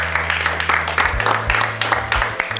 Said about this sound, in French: On peut applaudir Eden une dernière fois, s'il vous plaît.